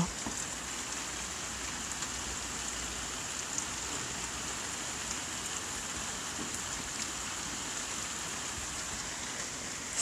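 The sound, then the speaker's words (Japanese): Steady rain falls continuously outside a home, a dense, even hiss with occasional faint drips, moderately quiet and unbroken for the whole stretch, with no voices present. “本当に今ちょっとね自宅から配信してるんですけど雨が降ってるんですよ聞こえますか”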